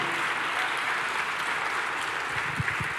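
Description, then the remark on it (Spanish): A crowd of people claps steadily for God during a worship service, about three seconds of a dense, even wash of applause at moderate loudness with a few faint low thumps near the end. “En el nombre, oh, dale fuerte ese aplauso a nuestro Dios.”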